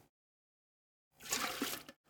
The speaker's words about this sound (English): see how quickly that gets poured out?